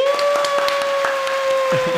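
Scattered applause, a quick run of uneven hand claps lasting a couple of seconds, with a steady high ringing tone humming underneath throughout.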